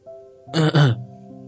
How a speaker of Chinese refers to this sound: 但坏狐狸们并不打算就此放弃。一只文质彬彬的狐狸清了清嗓子说